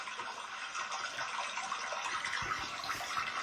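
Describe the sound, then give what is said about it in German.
Water pours steadily for a few seconds, a continuous hiss and splash like filling a container, with no voices over it. “Jetzt hat der Delfin noch Wasser bekommen.”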